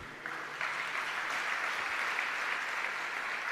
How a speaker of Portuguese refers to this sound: Pode aplaudir o Senhor que é bom.